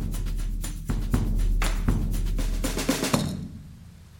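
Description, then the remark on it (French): Steady heavy rain hisses over a deep, continuous rumble of thunder, with a few sharper gusts and crackles before the downpour fades out near the end. “c'est le déluge. Il pleut, il pleut depuis si longtemps que toute la terre est couverte d'eau.”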